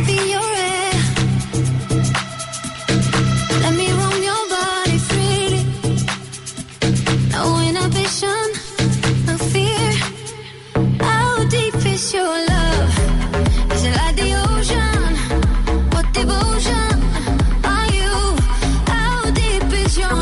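An energetic electronic dance-pop song plays loudly and steadily, with a sung vocal melody over synths; about halfway through, a thumping, pulsing bass line kicks in and drives the beat.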